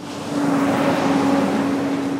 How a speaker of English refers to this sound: On an industrial street in the city of Riverside, delivery trucks rumble past a small wooden building the Trujillo adobe, built over 150 years ago in 1862.